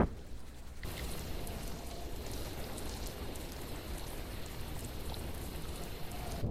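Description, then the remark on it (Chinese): Steady rain falls outside a hall, a dense, even hiss with faint pattering that cuts in abruptly after a brief quiet start and continues unbroken, with no one speaking. “可是我却听到了厅外正在下雨的声音”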